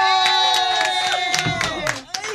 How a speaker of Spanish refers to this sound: ¡Un aplauso para El Castillo!